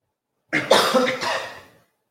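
Several people cough together at once, a loud cluster of overlapping coughs lasting just over a second before trailing off, with no talking.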